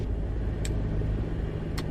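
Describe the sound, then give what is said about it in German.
A vehicle engine fires up and settles into a steady, low rumble, with two short sharp clicks about a second apart over the running motor. “Start.”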